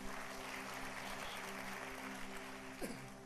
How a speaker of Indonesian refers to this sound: Kemohon berikan tepuk tangan bagi nama Tuhan.